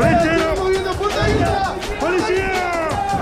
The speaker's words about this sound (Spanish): Del otro lado, lo único que recibió fue agite, gritos, reclamos y risas.